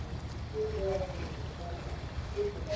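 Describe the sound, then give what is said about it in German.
A steady low rumble and rushing wash of water as a large tourist excursion ship passes on a river while an announcement is made, with faint, indistinct voices drifting in over the noise. “Oh, jetzt hört man es vielleicht rauschen. Oh, und da wird auch gerade was durchgegeben. Oh, das ist, ein die großes, Edelweiß. Großes touri Ein Freizeitschiff.”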